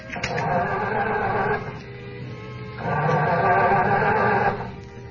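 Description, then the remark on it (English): A boat motor sputters through two rough, coughing bursts, each lasting a second or two before dying away. The engine never catches, and it sounds fairly loud. “Wait till you hear that motor purr.”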